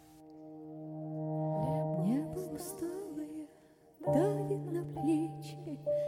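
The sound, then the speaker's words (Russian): An instrumental song intro plays: a steady droning chord with a gliding melodic line above it, easing off briefly midway before the drone swells back in, with no voices. “И звучит песня.”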